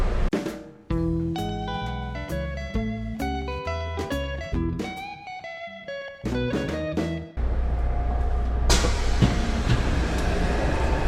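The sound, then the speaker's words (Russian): A metro train with nearly empty carriages on a Tuesday, a working day: a run of stepped, humming electric tones gives way to a loud, steady roar of the train moving, with no voices. “И это несмотря на то, что сегодня вторник, рабочий день, и обычно в это время в метро бывает очень много людей.”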